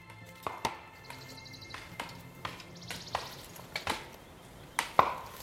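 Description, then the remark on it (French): Forestry marking hammers, used by foresters to designate trees, strike wood in an irregular, overlapping clatter. Each hammer has a handle and two heads, one sharp like an axe and one engraved. A dozen or so sharp knocks of varying loudness, some with a brief bright ring, and no voices. “C'est un concert de marteaux, de marteaux forestiers qui servent à désigner les arbres.”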